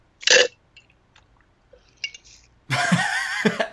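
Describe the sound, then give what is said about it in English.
A wet slurp of iced lactation tea through a straw or from a glass, starting with a short sip, a few faint mouth clicks, then a longer, louder noisy slurp. “As she slurps her iced tea.”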